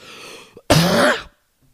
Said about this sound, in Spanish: he estado tratando de, aguantar esta tos desde hace como seis minutos.